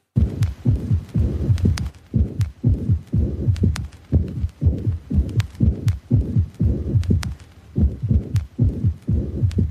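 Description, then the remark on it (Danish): A steady, loud, funky heartbeat rhythm plays solo as a loop, deep thudding beats repeating in quick succession with a low hum underneath and faint vinyl crackle, no voices. “Det er ren hjerterytmen, ja.”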